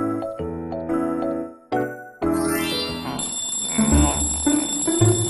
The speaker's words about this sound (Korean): 아 이런 벌써 알람이 몇 번 울렸는지 알고 있어?